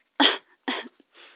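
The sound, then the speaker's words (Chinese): A sick child with a headache coughs three times in quick succession: two harsh, forceful bursts followed by a softer, breathier third, with short silent gaps between them and no talking. “我头疼，乔碧说。我还咳嗽。”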